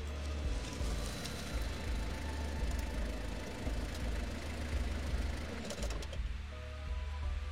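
car engine idling

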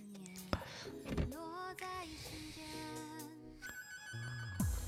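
phone ringtone

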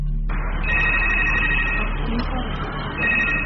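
telephone ringing

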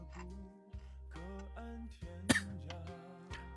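cough

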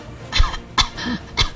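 coughing

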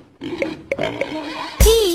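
pig oinking

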